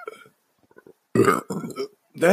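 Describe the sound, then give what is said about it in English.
A loud, drawn-out chocolate chip burp erupts in a couple of guttural pulses, preceded by a softer throaty rumble and quiet clicks. “The chocolate chip burps.”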